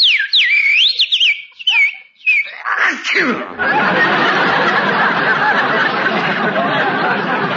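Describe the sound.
Someone whistles an imitation of a little bird singing, presented as a resident of warm, sunny California in spring: quick, high warbling trills and chirps for about three seconds, ending in a downward swoop, then loud, steady crowd noise takes over.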